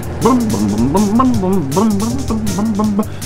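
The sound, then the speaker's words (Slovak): A loud, steady vehicle rumble from a bumpy bus ride, with a droning engine tone that wobbles up and down in pitch and continuous low noise underneath. “Tuším, mamička cestuje. Asi nastúpila do autobusu. To je teda riadna hadrgačka.”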